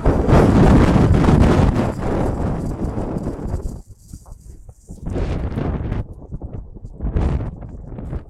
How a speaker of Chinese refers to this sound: 今天大家听到的可能不是鸟声，是风声。